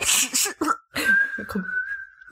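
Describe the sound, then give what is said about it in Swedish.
A person attempts a whistle: a few breathy, airy puffs, then a thin, weak whistle tone held steadily for about a second before fading out. “Oj det var ett svagt vissel okay.”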